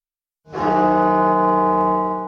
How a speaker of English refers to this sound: Bells at the National Cathedral sounding 500 times each tone, marking a thousand lives.